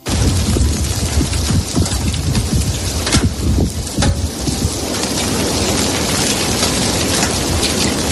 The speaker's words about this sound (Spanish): Es la colada de, lava arrasando poco a poco el colegio de los Campitos en los llanos de Aridane. Un pequeño centro educativo donde estudiaban 50 alumnos.